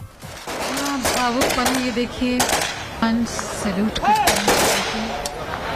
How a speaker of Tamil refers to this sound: … உடல் முழு அரசு மரியாதையுடன் தகனம் துப்பாக்கி குண்டுகள் முழங்க பாதுகாப்பு படையினர் மரியாதை